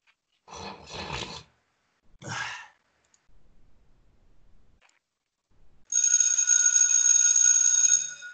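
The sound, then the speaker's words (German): After a few breathy sighs and quiet rustling, a bell rings loudly and continuously for about two seconds with a bright, steady, sustained tone, then stops abruptly. “Äh, ah, da muss ich jetzt, jetzt muss ich nochmal läuten, jetzt bin ich dran.”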